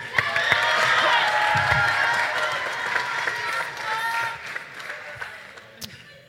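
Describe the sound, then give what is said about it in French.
An audience at the second semi-final of a competition cheers and claps loudly, a dense wash of overlapping shouts and applause that gradually thins out and fades over several seconds. “Du bruit”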